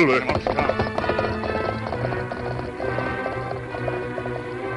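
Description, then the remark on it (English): Horses galloping as a rider on horseback is chased by two horsemen, their hoofbeats drumming in a fast, steady rhythm throughout, loud over a dense, busy background of other sound. “As he started to gallop, there was no doubt that they were coming after him.”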